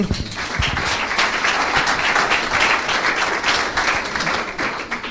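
Steady, dense applause from an audience, many hands clapping at once in a continuous crackling wash that holds fairly loud for the whole stretch with no voices over it.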